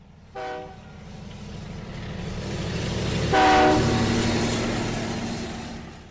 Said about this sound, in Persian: قطار تلق طلوق می کرد و میگذشت چهره ها و دست ها در پنجره ها و در خطی تند محو می شدند